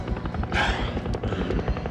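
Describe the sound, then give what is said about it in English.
A helicopter's rotor thumps steadily and loudly on a skyscraper roof, with a dense engine rumble and a brief whooshing surge partway through. “No way we're making it to the roof before that chopper does.”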